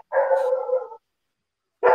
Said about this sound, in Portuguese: aí os cachorros começaram a conversar aqui fora também, aí me distrai. Não, não sei se dá para você ouvir aí, se o áudio está passando.